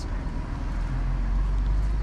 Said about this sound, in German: Genau, wir steigen jetzt in den Bus ein